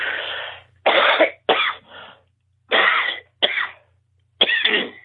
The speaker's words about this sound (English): Hold on, I got a cough, so I'm, okay. trying, to, I'm trying to get around it, but I can't seem to get a, a handle on it.